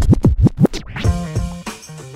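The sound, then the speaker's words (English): Fast DJ scratches on a vinyl record, several quick back-and-forth pitch sweeps in a row, loud, then a short burst of music with a steady beat playing on. “He created various DJing techniques, like the use of fingertips as a way to control the vinyl and create sounds.”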